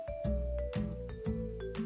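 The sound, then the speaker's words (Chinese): A doorbell rings with a series of evenly spaced chiming tones, about four in quick succession over a steady ringing hum, with no voices present. “叮咚！突然门铃响了，温妮连忙跑去开门。”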